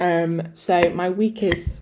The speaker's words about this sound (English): sorry if you can hear in the background. I'm eating a salad because health is wealth with some smoked salmon.